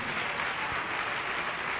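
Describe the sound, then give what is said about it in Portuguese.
A church audience applauds the Lord Jesus for each person coming to the front: a dense wash of many hands clapping at an even, fairly loud level throughout, with no voices standing out. “E vamos aplaudir ao Senhor Jesus por cada vida que está tendo a coragem de vir aqui para frente”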